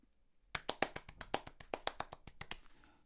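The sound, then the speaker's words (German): Rapid hand claps, about fifteen sharp slaps in a quick, slightly uneven rhythm, fairly loud, with no talking over them before they trail off. “Ich klatsch jetzt so.”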